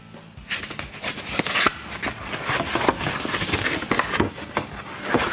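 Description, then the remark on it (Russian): Crisp paper crinkling and tearing as an envelope is opened, a steady stream of rustles and sharp little rips lasting several seconds with no voices. “Такой конвертик прям.”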